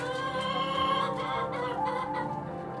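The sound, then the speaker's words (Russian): A dense chorus of chickens clucking and chattering all at once, steady and fairly loud throughout, chicks crowded in a cramped, closed poultry hangar with no sunlight, no single bird standing out. “Чтобы нарастить производство куриного мяса, цыплят стали разводить в тесных закрытых ангарах, куда не проникало солнце.”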